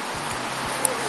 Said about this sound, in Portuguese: Tá rolando um áudio vazando aí? Que, tá, que barulho é esse? Tá rolando um chiado.